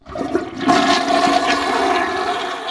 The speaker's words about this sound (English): So flush the toilet for us.